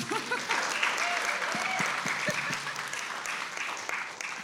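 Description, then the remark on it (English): A crowd claps steadily for several seconds, a dense burst of applause, with a few voices faintly mixed in underneath. “Give it up for comedy.”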